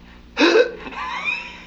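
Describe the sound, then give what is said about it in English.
A person demonstrates a vocal sequence begun with the letter E, letting out a sharp, breathy gasp, followed by a softer, drawn-out voiced sound with a gently rising pitch. “Let's see, E, and then you go, and then you kind of gasp.”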